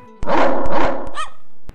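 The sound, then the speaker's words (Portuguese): A human voice imitates a dog barking, voicing a rooster that mimics dogs, giving a couple of rough, loud barks that end in a short, higher yelp, with no other talking. “Mal acabara de dizer essas palavras, o galo Zé atacou, imitando perfeitamente o latido dos cães.”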